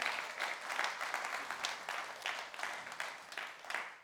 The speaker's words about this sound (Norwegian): Men kan vi gi dem en applaus. Takk for at dere var med og fikk vise dere fram.